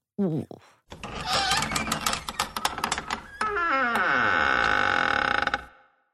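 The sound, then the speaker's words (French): A door creaks open slowly, with a drawn-out, rising groan after a few clicks and rattles, loud, with no voices. “C'était bien une porte qui grince.”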